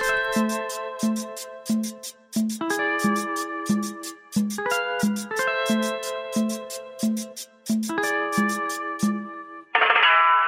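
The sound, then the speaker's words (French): The title track of an album begins with a steady, punchy beat under bright, layered synth chords that shift every couple of seconds, closing on a sudden hissing swell of noise. “Et justement, oui, en parlant d'ADN, ce serait peut-être bien d'écouter la chanson éponyme de cet album. on va la lancer tout de suite et après on en parlera un petit peu plus.”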